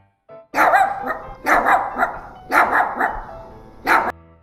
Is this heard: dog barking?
yes